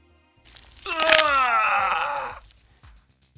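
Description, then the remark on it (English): A sharp, crunching crack of bone as a man's arm is pulled off its shoulder socket and broken in half bursts out over a loud, pained groan that slides downward in pitch for about a second and a half before cutting off. “Faiza somersaulted sideways, pulling the arm off its shoulder socket and breaking it in half.”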